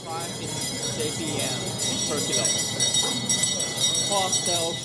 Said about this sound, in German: Vor jede Palettenreihe stellt sich ein Verkäufer auf einen Holzhocker und läutet mit einer Glocke. Das Zeichen zum Start der Auktion.